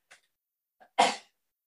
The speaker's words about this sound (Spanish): uy, voy a estornudar, verá.